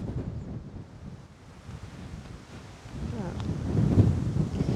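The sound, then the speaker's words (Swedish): Gusty wind buffets the microphone outdoors at a quarry in Vrålebo on a cool, sunny July day, a steady low rumble that swells louder toward the end, with faint murmuring voices underneath. “okej, lite svalare ja. men dock sol och blåsigt.”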